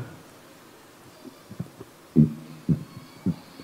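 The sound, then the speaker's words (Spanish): A voice imitates pigeons cooing, making a few low, throaty, rounded coos in short bursts, with fainter murmurs before them and the last three coos louder, spaced about half a second apart. “yo tengo en mi terraza una barandilla y a veces ahí se posan el palomo y la paloma. Siempre forman parejas que nunca se separan. Y veo cómo gorgojean.”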